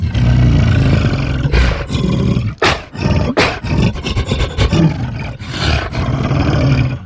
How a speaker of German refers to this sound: Das eben gehörte Affengebrüll durch den Harmonizer geschickt klingt dann so.